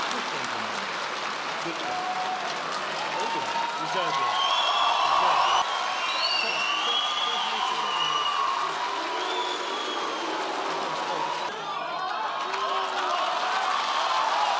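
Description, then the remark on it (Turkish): Sustained applause and cheering from hundreds of graduates and their families protesting against a university dean, a dense steady wash of clapping with whoops and shouts rising above it throughout. “Yüzlerce mezunun ve ailelerinin alkışlı protestosu karşısında dekan geri adım attı.”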